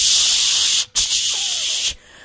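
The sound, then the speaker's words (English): A voice makes a loud hissing "shhh" imitating steam rising from a hot dish being brought in, held for about a second, briefly broken, then drawn out again before fading. “Even if they didn't tell you, if somebody brings something and as they walk in, all you see is smoke and steam and shh”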